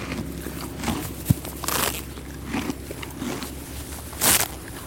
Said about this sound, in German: Ein junger Mann mit einem Esel. Ein Bild, das die Bewohner des kleinen Westerwalddorfs längst gewohnt sind. Immer wieder hält Eseldame Greta an, um etwas Gras zu naschen.